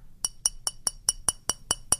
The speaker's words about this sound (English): Can you guys hear? It's almost empty. My jar is almost empty. So you can really hear it. Now, if my jar was full and I banged on it with my fingernail, you'd barely be able to hear it. There would be a very small vibration. It would be very dull.